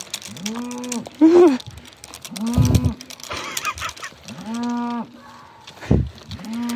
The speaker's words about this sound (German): Okay, du bist eine sehr große Kuh. Eine sehr große Kuh. Oder ein Büffel. Oder was weiß ich.